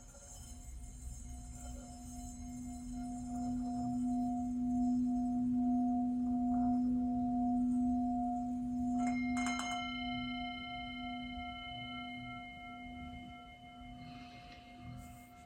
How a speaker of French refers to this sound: Comme si tout est dans ce son, tout est dans ce son. Rayonnement fossile de l'univers